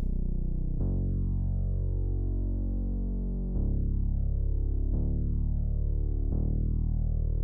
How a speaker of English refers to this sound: The bass is very drone-like.